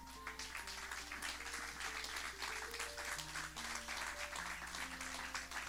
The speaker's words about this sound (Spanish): Si Dios te habló en esta mañana, dale un aplauso.